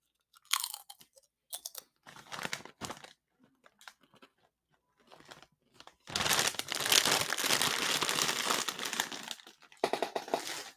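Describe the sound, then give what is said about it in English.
Loud, crisp crunching as a chip is bitten and chewed, starting with scattered sharp crunches, then a few seconds of dense, continuous crackling mastication. No talking is heard. “Yeah, these are really good. Jesus. One last chip.”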